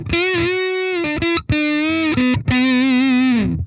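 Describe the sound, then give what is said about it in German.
An electric guitar played through a Big Muff fuzz pedal plays a few long, sustained single notes, thick and buzzy with rich overtones, including a brief bend and some vibrato on the last note. Loud, with no talking. “Das Big Muff unten links.”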